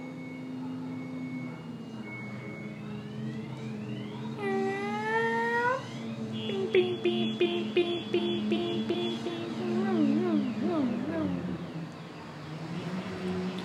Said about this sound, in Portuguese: E eu ia finalizar, mas o carro do lixo tá passando. Então eu acho que eu vou deixar esses últimos segundos dedicados a ele.